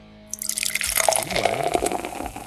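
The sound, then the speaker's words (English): Beer pours steadily into a glass, a bubbling, gurgling stream starting abruptly and continuing with shifting splashy tones; no one speaks. “it's going to be uh, freshly poured at the second half.”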